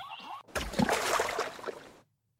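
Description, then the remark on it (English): A giraffe falls into water with a single loud splash: a heavy impact followed by about a second and a half of rushing, churning water that cuts off abruptly. A brief high tone comes just before it. “Giraffe hits the water with a huge splash.”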